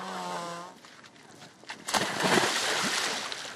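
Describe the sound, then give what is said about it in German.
A woman plunges into icy water of about one to two degrees, where there are floating ice floes, with a sudden splash, followed by a few seconds of churning, sloshing water. A brief voice is heard just before the jump. “ist die Erste, die ins Wasser springt.”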